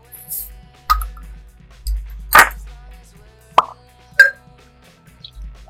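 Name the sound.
beer bottle being uncapped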